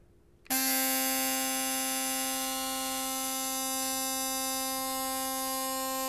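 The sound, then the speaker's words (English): An Oral-B electric toothbrush, nicknamed Phyllis, switches on abruptly and buzzes steadily. It gives a loud, rich, high-pitched whine with many bright overtones that holds constant until the end, with no talking. “I brought the Oral B into the uh, conversation.”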